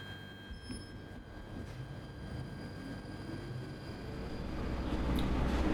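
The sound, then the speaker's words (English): A train runs along the railway line at Stroud Green station in North London, atop a steep embankment, on a service terminating at Alexandra Palace: a steady, low rumble with faint high whining tones above it, growing gradually louder over the few seconds, with no voices. “At Stroud Green, we had a good head start with the train already atop a steep embankment.”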